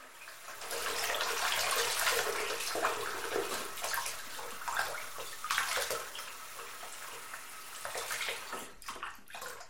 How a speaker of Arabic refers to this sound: عندما عاد الراوي إلى المنزل انهمك في غسل آثار الدم على يديه